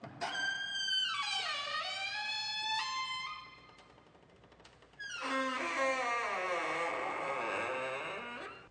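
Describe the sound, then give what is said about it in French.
A door creaks loudly and slowly in two long, drawn-out groans with wavering, sliding pitch, separated by a brief quieter pause. No one speaks. “C'était le son d'une porte qui grince.”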